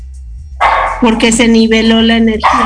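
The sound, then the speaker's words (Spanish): A nervous dog barks loudly in a few quick, sharp yaps, overlapping with a person speaking throughout. “perdón por mi perro, porque está un poco nervioso”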